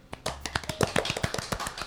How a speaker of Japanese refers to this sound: もう顔が固まって拍手してますけどね